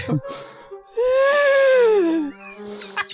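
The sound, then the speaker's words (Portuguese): A person imitates a horse neighing: one loud, drawn-out voiced cry that rises slightly, then slides down in pitch before cutting off, with brief faint sounds on either side. “o cavalo lá do outro lado que o Clank enxerga, o cavalo relincha.”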